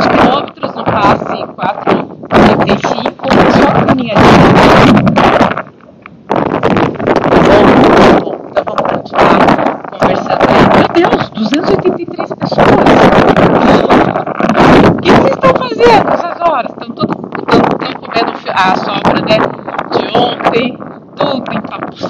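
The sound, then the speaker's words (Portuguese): Loud gusts of wind buffet the microphone throughout in Parque Barigui, Curitiba, as rain approaches, producing a constant roaring rumble with sharp bursts, while a person talks underneath the noise. “Ai, tá ventando muito porque vai chover.”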